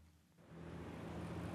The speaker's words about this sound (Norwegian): Jeg står her i den stekende sola i en av eh, Managuas mest trafikkerte rundkjøringer. Bussene farer forbi og eksosen spruter ut.